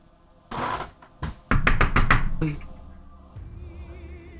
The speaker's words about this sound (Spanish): Uy, están golpeando la puerta.